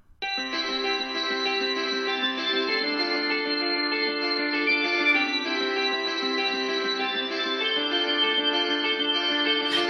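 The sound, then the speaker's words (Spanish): A pop song's instrumental intro, played as the single of the week, plays on its own, with layered, sustained synth-like chords washed in echo and chorus effects, staying steady and loud and shifting chords every few seconds. “tiene un hit que me ha vuelto loco y que me lo pongo todas las noches antes de dormir porque ahora me pongo canciones para dormirme”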